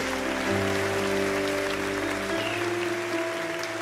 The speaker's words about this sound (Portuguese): Bota salva de palmas para Jesus aí, bem forte.